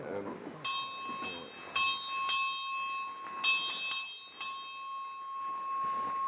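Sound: hand bell ringing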